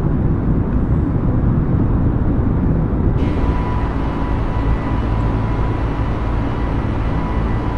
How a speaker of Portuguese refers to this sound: Essa é a hora que dá o um na barriga, que as rodas saem do. do... Recolhendo é, o trem de pouso.